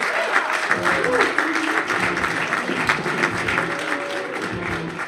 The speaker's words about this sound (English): Please give it up for